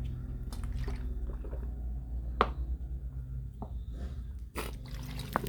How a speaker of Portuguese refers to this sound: Tome mais água. Deixa eu tomar mais um gole d'água. tomei tomei